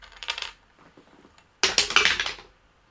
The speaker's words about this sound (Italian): Allora, sei sulla sponda orientale del fiume Grim, lancia un dado. Lanciamo un dado.